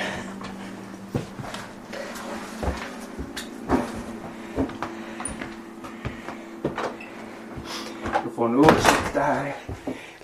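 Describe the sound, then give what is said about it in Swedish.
A house's kitchen entrance door is opened as visitors step into the warm kitchen, with scattered knocks and clatter, then a creaking, squeaky swing near the end, over a low steady hum and faint voices. “Det här är köksingången men man kan inte komma in andra vägen för jag har lite ved i vägen där i dörrnischen.”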